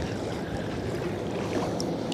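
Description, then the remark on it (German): Small waves lap and slosh steadily against a boat hull on calm, flat water, a soft continuous watery wash with no voices, and a couple of faint high chirps near the end. “Die Wellen schwappen. So schön. Hört ihr das?”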